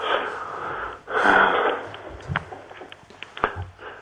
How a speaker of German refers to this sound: Was keuchst du eigentlich so?